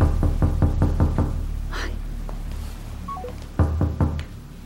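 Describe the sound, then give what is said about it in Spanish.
Rapid knocking on a door, a burst of about six quick raps, then a pause with a couple of faint electronic beeps, followed by another short round of firm knocks. No voices. “Carolina, abre la puta puerta ya.”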